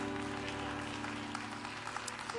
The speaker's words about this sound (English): Oh God, would you clap your hands to the Lord and give him a little more praise right now?